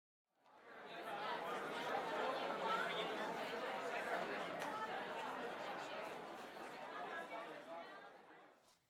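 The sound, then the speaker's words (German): Steady murmur of many overlapping voices in a company canteen, fading in and holding at a constant moderate level before fading out; no single speaker stands out. “Ein Dialog, wie er vielleicht jeden Tag in einem Unternehmen, zum Beispiel in der Betriebskantine, geführt wird.”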